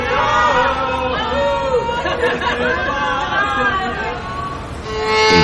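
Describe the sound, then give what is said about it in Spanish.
A crowd shouting in celebration, many voices overlapping into a loud, steady roar of cries and calls that holds for the whole stretch and swells again at the end. “Se oyen los gritos de celebración.”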